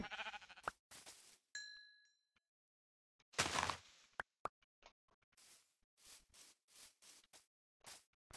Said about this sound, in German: Oh mein Gott, es waren zwei Schafe.